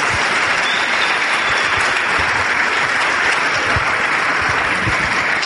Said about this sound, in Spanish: ¿Saben quiénes son los profesores? Dale un aplauso porque eso es impresionante.